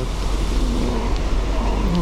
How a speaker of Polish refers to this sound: jest bardzo źle, jak wiatr wieje mocny. Mikrofon szumi. Nie wiem, czy będzie szumieć. Nie mam odsłuchu.